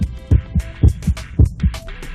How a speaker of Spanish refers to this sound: Estos latidos son provocados por impulsos eléctricos que se originan en el marcapasos natural del corazón.